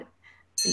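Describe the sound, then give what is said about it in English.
A phone alarm suddenly blares in after a faint trailing voice: a loud, high, piercing electronic tone with a buzzy edge that cuts off almost as soon as it starts. “i apologize that was my phone alarm reminding me about the podcast”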